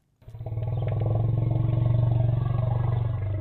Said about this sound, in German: Ein drohender Löwe, ein grimmiger Büffel, Nein, mit diesem tieffrequenten Grollen verständigen sich Elefanten über viele Kilometer in der afrikanischen Savanne.